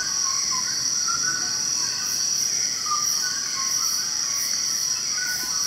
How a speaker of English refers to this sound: So this is a dawn chorus, and you're just hearing loads and loads and loads of birds all calling at once as they all wake up. It's so rich. Yeah. And it's like, it is very loud. These birds are completely surrounding you, and they're up in the canopy